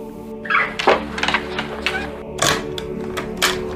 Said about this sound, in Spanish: El sonido de los pestillos lo asusta.